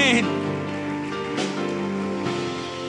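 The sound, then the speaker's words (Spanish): An audience applauds in faith during a Spanish-language sermon, a steady, dense wash of clapping that runs the whole few seconds, with sustained musical tones humming underneath. “Vamos, aplauda con fe y diga”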